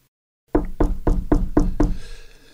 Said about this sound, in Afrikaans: Wie sou nou daar my deur klop? Die tyd van die aand.